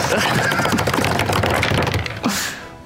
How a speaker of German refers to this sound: Du sagst mir erstmal den Schaden an ja. dann würfel ich nach und nach durch, äh, wer ja. umkippt und ja, vielleicht noch am Leben bleibt.